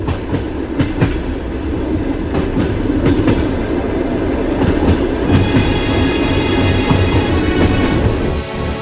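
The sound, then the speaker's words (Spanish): A train rolls past, a loud, steady rumble broken by irregular clickety-clack bursts of wheels over rail joints, with faint metallic whine toward the end and no voices. “Icónica Urbana es un vagón de libertad en un tren de ruido. Bienvenidos a bordo.”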